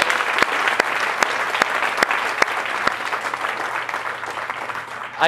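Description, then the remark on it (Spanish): Steady audience applause as the audience gives themselves a big hand, dense and fairly loud, with many hands clapping continuously and a few sharper claps standing out now and then throughout. “Regálate un fuerte aplauso, me encanta.”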